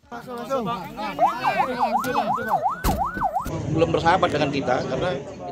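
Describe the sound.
An ambulance siren wails in quick, rising-and-falling sweeps for a couple of seconds amid a noisy scene with voices as injured people rescued by relay teams through thick jungle are taken to an ambulance and hospital, then gives way to a dense, loud wash of commotion.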